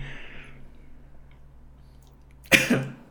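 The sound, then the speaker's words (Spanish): A single sharp sneeze bursts out near the end, loud and brief with a quick trailing exhale, after a few seconds of quiet hum. “Salud.”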